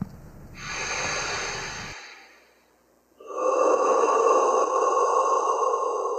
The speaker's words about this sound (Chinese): 黑暗中，随着沉重呼吸声响起，观众仿佛进入一个幽闭空间里。这是河床剧团最新作品《被遗忘的》的第一幕。